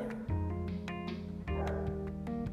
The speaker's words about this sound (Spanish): ¿Por qué es así? ¿Por qué hace todo lo que me molesta? Como ladrar. Odio que ladre.